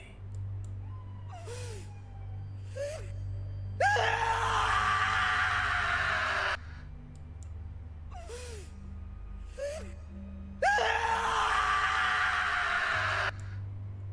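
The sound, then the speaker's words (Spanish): Two long, harsh human screams, loud, each preceded by short strained gasps, over a steady low hum in the background. “Empezó a gritar el cadáver, güey.”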